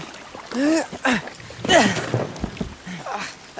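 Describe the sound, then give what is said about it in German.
A boat hull scrapes and swishes through shallow water as it is pulled ashore beside another boat under a willow tree in the rain, in a few hard heaves, with short strained grunts and splashy noise between the pulls. “Wir ziehen unser Boot neben ihrs.”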